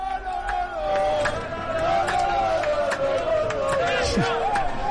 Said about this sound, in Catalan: Doncs, evidentment, aquests són els crits dels aficionats de la pella que han vingut fins aquí i que no només n'hi ha a, a la part baixa. I escolteu, escolteu.